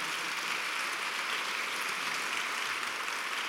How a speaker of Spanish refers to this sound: Dale un aplauso al Señor en esta mañana.